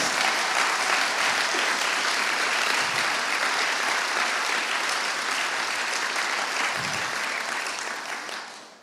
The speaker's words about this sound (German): Ja, Ihr dürft, euch euer, ihr dürft euren Pastoren und euren ehemaligen Pastor ruhig einen großen, dicken Applaus geben. Ich finde, das haben sie verdient.